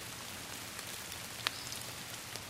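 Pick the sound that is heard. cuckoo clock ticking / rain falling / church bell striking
rain falling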